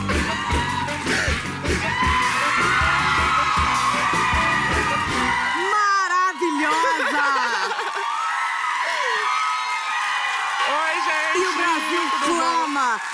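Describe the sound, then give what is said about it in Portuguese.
A large audience screams and cheers loudly and without pause as a Brazilian singer is introduced, shrill whoops and yells rising over a dense roar of voices that thins out partway through, leaving high piercing cries. “e grita com …”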